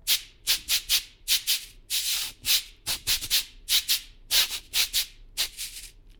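A cabasa, with strings of metal beads wound around a ribbed surface, scrapes in a quick, steady rhythm of short and longer bright rasping strokes, fairly loud, with no voices.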